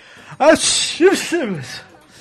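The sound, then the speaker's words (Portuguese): A loud sneeze bursts out with a sharp breathy blast and a voiced cry, followed by a second, similar burst about half a second later, then a softer trailing breath. “Saúde.”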